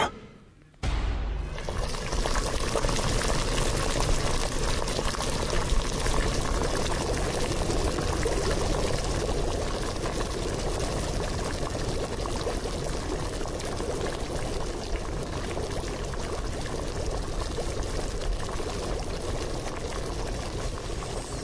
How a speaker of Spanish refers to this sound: Estamos escuchando agua hirviendo una olla hirviendo.